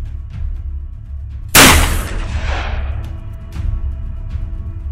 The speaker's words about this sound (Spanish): Pero antes de que el aire se le fuera por completo, un nuevo disparo sobre su pecho acabó con su vida para siempre.